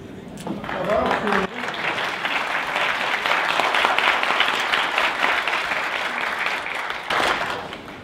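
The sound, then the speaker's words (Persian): A crowd bursts into steady applause, dense rapid clapping that holds loud for several seconds, with a brief voice and stir at the start and a swell near the end. “بعد اگه خوشتون اومد دارم دست”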